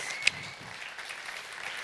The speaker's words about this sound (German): Herzlichen Applaus.